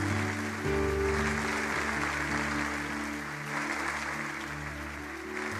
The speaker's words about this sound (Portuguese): Se isso é verdade, você pode aplaudir Jesus pela vida dessas pessoas.